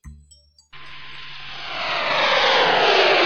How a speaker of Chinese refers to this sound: 此时的卡乐咪和猫女。正驾驶着飞碟朝着奥林匹斯山的山顶飞去。